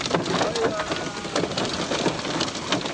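A sudden heavy summer downpour with hail and storm roars, a dense, steady hiss of rain pelting hard surfaces with countless pattering drop impacts throughout.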